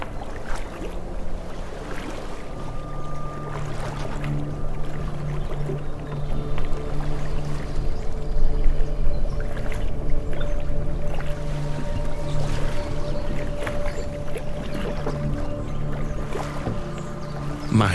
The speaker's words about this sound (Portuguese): O relaxante som do mar nos embala nessa pequena jornada.